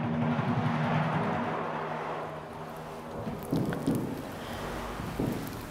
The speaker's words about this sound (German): Eines Nachts hörte er von weitem ein Geräusch. Er kannte es vom Wald her. Es war das Geräusch des Windes. Es wurde lauter, immer lauter, mächtiger. Das war ein Sturm, ja fast schon wie ein Orkan.